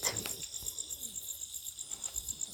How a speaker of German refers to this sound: Der Dschungel wird lauter, umso dunkler die Nacht wird.